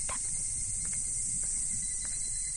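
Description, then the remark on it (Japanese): A steady, high-pitched chorus of evening cicadas (higurashi) shrills continuously in the background, an unbroken insect drone with faint low rumble beneath and no voices. “日暮の声に背中を押されて私たちは橋を渡った”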